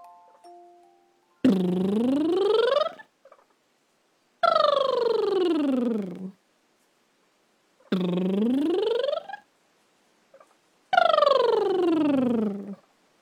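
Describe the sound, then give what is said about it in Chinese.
Four buzzing lip trills, each about a second and a half long and separated by short pauses. Their pitch glides smoothly, sweeping up and down in a siren-like vocal exercise. “我们再来一次，这一次我们一起听一听，谁可以让嘴唇滚动的声音又稳又好听哦？”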